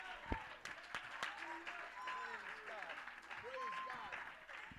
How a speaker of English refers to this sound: Oh, somebody clap your hands. Hey, but I think we ought to praise God in this house.